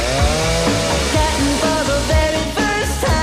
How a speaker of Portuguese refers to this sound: Aquilo era uma motosserra? Era, era. Sim.